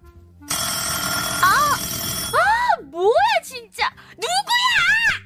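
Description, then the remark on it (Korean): A loud alarm clock rings with a steady, rattling bell for about two seconds. Near its end a voice cuts in, and excited speech carries on after the ringing stops. “알람 소리 기청 떨어지겠어!”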